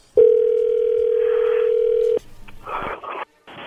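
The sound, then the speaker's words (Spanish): As a phone call is placed, a loud, steady telephone dial tone holds one low, unwavering pitch for about two seconds, then cuts off abruptly, followed by softer rustling, clicking line noise. “Le va a llamar el lobo, ¿ok?”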